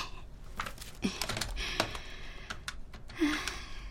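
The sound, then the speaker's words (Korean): A series of quick plastic key presses, like buttons being pushed on a phone keypad, tapping out in an uneven rhythm, with no voices. “모로 누워 있는 영일의 등을 곱게 흘기며 전화번호를 눌렀다”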